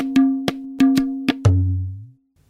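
Vietnamese dan bau, a single-string monochord of Vietnam, in a 1991 album recording: a few bright plucked notes ring out in a loose rhythm, the last one bending downward in pitch before fading into silence.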